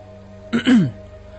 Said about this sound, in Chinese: 他暗自打起了回到县刑警大队的退堂鼓，来到投影仪幕布前，清了清嗓子。